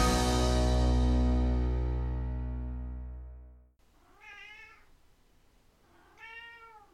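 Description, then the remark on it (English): A sustained, loud musical tone fades out, then a male cat meows twice, a couple of seconds apart. Both meows are clear, rising and falling cries at moderate volume. “Don't make eye contact with him. That's when he meows.”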